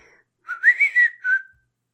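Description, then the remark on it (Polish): A short whistled Samsung phone notification tune: a quick upward swoop followed by a few bright, wavering notes and a final held tone, clear, with no talking. “Takie wiesz, gwizdanie, to takie tu tu tu tu, tu ale...”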